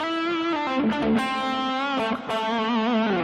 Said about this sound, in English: Thank you for letting me know you can hear my guitar.